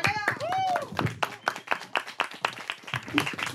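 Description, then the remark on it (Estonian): A small group applauds, hands clapping in a quick, steady patter for a few seconds, with a brief whistling or cheering voice near the start. “teeme aplausi”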